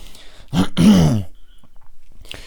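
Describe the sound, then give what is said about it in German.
A loud cough into a person's arm bursts out once in two quick rough pushes, sounding somewhat muffled, with the microphone turned about 7 mm away; then quiet room tone follows with a faint rustle at the end. “Ich hab da nicht reingehustet, Mann. Ich habe in meinen Arm gehustet.”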